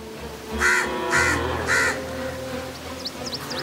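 Three harsh crow caws ring out in quick succession, loud, followed by faint high chirps from smaller birds over a low background hum.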